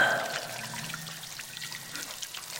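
Water runs steadily from a tap in a washroom, the sound filling a narrow, empty corridor: a continuous hissing trickle with faint splashes. It is fairly quiet and fills the whole stretch with no voices.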